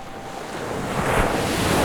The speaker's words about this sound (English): Before Nico could say anything, a big, big wave curled up above and around them.